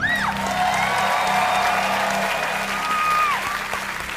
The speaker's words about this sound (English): They're just being nice for cheering, just because I'm here. They're just being nice.